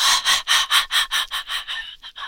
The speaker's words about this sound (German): Vergiss nicht zu atmen, tief ein und tief aus. Gern auch über den Mund. Es ist auch eine schöne Energy Medicine Yoga Atmung, Nase ein, Mund aus. Mach da gern Geräusche.